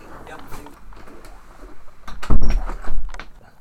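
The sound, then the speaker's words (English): A door swings shut with a solid low thud partway through, closed to keep out noise, followed by a short rattle, while muffled voices murmur. “Is it okay if I close the door just yeah. for sound's sake?”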